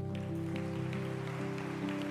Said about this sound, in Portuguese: Pode aplaudir o Senhor que é bom.